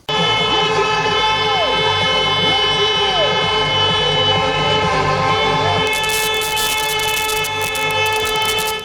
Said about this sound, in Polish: Jak sami słyszycie, poza rywalizacją sportową, właśnie podczas tych zawodów kilkugodzinne trąbienie nad samym uchem mamy zagwarantowane.